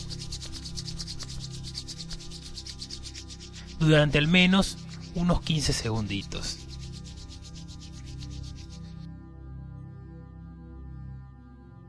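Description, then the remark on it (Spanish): Hands rub together briskly and firmly, as if to warm them against the cold, a steady swishing friction that runs for several seconds before stopping. A voice speaks briefly over the rubbing partway through. “Para sentir tu aura simplemente lo que tienes que hacer ahora, relájate, ponte en una postura cómoda y simplemente comienza a frotar las manos como si quisieras calentarlas, igual que cuando hacemos cuando tenemos frío, frotarlas fuerte.”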